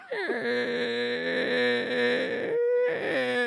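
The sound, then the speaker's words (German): A voice imitates the creaking of a bedroom door with a drawn-out, wavering tone that rises and dips for about two and a half seconds, briefly breaks off, then creaks again. It is fairly loud, with no words. “ich werde nie das erste Mal vergessen, meine Tür hat auch so geknarzt.”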